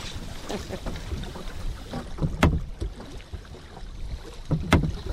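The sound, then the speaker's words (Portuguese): A small boat glides along a river, a man at the stern and a woman at the bow guiding it, with a continuous wash of water and breezy rumble broken by two sharp, splashy knocks a couple of seconds apart. “E a mulher está na proa, que é que guia o barco.”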